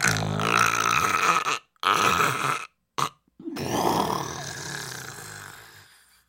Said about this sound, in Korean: 잠자리가 바뀌면 못 주무신댔는데 상추에 취하셨던 걸까요? 우렁차게 코고는 소리를 들으며 곤이 잠드신 모습을 확인하고 나와야만 했습니다.